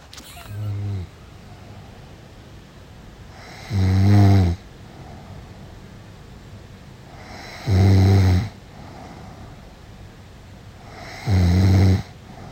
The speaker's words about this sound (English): And uh, yeah, so I recorded my sister snoring, who says, I never snore. Here we go.